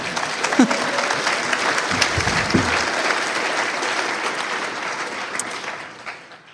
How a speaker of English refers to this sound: but I'm just trying to say, you're clapping to my higher power, not me. I, I didn't do that, but you can clap again for God, that's for sure.